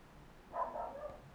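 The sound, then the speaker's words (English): A small Cavachon dog (a Cavalier King Charles Spaniel and Bichon Frise cross) barks once, a brief yap set against quiet background noise, with no one speaking over it. “oh, you can hear our dog barking in the background.”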